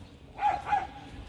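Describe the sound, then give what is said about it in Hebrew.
Two short dog barks ring out in quick succession near a dog park, moderately loud, with no talking, just a faint outdoor background between them. “אה, אנחנו פה ליד גינת הכלבים, אז תהנו מהנביחות”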